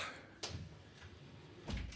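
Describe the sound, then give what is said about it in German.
A door being closed in a studio, heard as two soft knocks over a second apart, a sharp click and then a duller low thump, fairly quiet against faint room noise with no talking. “Ja, Tür ist wieder zu, weiter geht's.”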